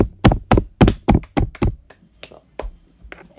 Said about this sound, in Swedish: Mm, ah, okej, Okej. det, där förtjänar en liten applåd.